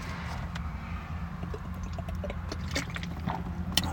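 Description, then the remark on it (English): Water is poured for a drink during a water break, over a steady low hum, with small splashes and clinks scattered through the pour, fairly quiet, and no one speaking. “Water break, sorry.”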